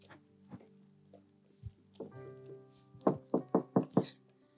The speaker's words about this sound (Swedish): Han står och knackar vid dörren. Om någon hör min röst och öppnar dörren, då ska jag komma in till honom och vi ska äta tillsammans.